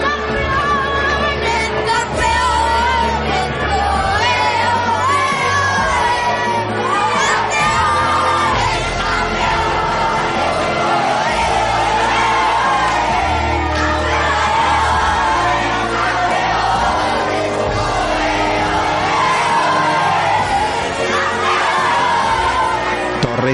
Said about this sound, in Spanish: ¿No estás oyendo? ¿No oyes al público? ¿Qué feliz está? ¿No escuchas?